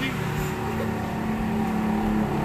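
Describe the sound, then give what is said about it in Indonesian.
Motorcycles pass by outside, their engines making a steady, fairly loud droning hum that fills the whole moment without a break. “duh pengen ngomong banyak motor aja”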